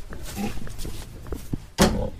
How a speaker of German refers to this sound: Jetzt stehen wir hier im Schweinestall auf dem Haserhof. Hat mit einem, sagen wir mal, ganz großen Maststall nichts zu tun. Hat aber auch damit zu tun, hier sind auch nur sieben Schweine. Genau, wir haben zwei Schweineställe mit je sieben Schweinen.